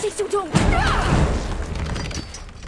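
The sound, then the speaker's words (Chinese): Two heavy, booming knocks on the large gate of the Dragon Spine (Longji) tribe, deep and dull, spaced about half a second apart. A brief voice comes just before them, and a low rumbling background continues afterward. “谈话间，龙脊部落已经近在眼前，试图要用行动证明小白的观点是错的，便带着一锅粥当礼物，敲响了龙脊部落的大门。”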